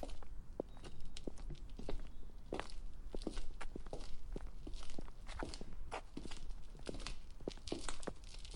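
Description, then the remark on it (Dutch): Footsteps walking steadily indoors toward the stairs, a series of crisp steps with a faint crunchy texture, continuing at an even pace throughout with no talking. “Hier lopen we naar de trap.”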